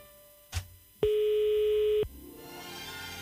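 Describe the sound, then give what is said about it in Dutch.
A telephone line ringing: a soft click, then a single steady, mid-pitched ring tone held for about a second before cutting off, leaving a faint hiss behind. “het gaat in ieder geval over.”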